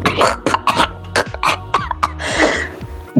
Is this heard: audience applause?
no